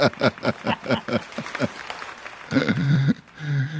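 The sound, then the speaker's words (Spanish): A burst of quick, rhythmic clapping runs for a couple of seconds, then gives way to a loud, drawn-out vocal cheer from what sounds like a small audience. “Y el público aclama.”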